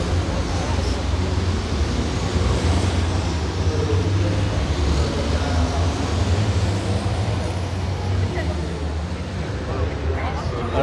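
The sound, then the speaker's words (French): A loud, continuous roar of heavy racing-truck engines at the start of a race fills the whole stretch, deep rumbling low end with a dense wash of noise, steady, with faint voices buried underneath. “Du bon boucan, on ressent la puissance euh, qu'il y a sous les moteurs.”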